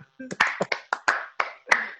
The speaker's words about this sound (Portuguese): Salva de palmas para o Batmóvel.